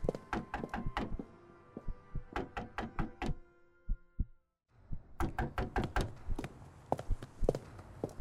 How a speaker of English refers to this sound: Here's a knocking indeed.